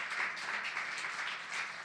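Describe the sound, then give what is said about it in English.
A crowd applauds steadily, many hands clapping into a dense, crackling wash of sound that stays at an even, moderately loud level throughout, with no voices standing out. “You can clap louder than that, that exists.”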